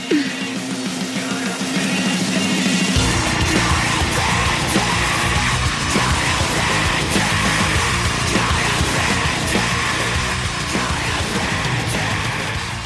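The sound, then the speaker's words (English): A loud, dense rock song with harsh screamed vocals; after a brief thinner opening, heavy drums and bass crash in and the distorted wall of sound stays intense throughout. “you're going to need to hear a little bit of what we call the codependent scream.”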